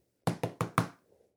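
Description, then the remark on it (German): Four firm knocks on a door, evenly spaced, each a sharp thud with a short decay, followed by a faint rustle and then quiet. No one speaks. “Dann hören sie es plötzlich klopfen.”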